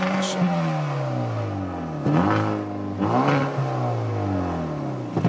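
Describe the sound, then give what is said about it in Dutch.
A hot hatch engine revs hard through several gear changes, its pitch climbing steadily then dropping abruptly at each shift, with a loud continuous roar and raspy exhaust throughout. “Maar ja, de, de, de, jij, jij, vroeg mij later: is dit de nieuwe koning van de hot hatches?”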